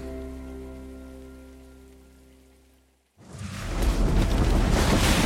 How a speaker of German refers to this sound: Blitze und Donner sind das Letzte, was Eva sieht und hört.